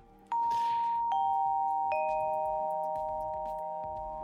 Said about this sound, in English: He's really drilling on the doorbell, man.